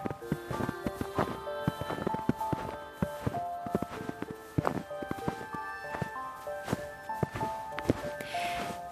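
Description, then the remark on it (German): Footsteps crunch through snow at a steady walking pace in a cold, snow-covered winter landscape, each step a soft gritty crunch, with a gentle sustained musical tone underneath. “Du gehst ein paar Schritte und merkst, wie der Schnee unter deinen Füßen knirscht.”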